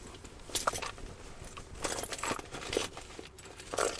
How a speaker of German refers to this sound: Ich muss noch schnell meinen Schlüssel suchen.